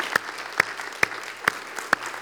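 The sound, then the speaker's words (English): A church audience claps together as a clap offering of praise to God, in a steady, even rhythm, five sharp synchronized beats about half a second apart over a soft wash of room noise, with no one speaking. “I think it would be good if we just give God a clap offering today for all that he's done.”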